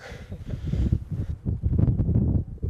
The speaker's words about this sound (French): En tout cas, il y a quelque chose qui ressemble à la Mongolie, c'est le vent. Ouais, ça, le vent, oui.